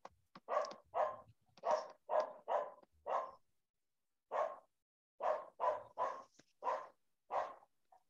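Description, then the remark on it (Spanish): A dog barks repeatedly, about a dozen sharp, evenly spaced barks in two bursts separated by a short pause, clear with no talking. “O sea, sí estoy pegado, que estaba viendo el perro.”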